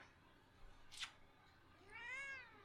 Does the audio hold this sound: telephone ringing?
no